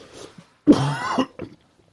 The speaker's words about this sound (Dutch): Ik moet ook, ik hoest een beetje, dus ik moet dadelijk een paar slokken nemen. Dat is meteen weg.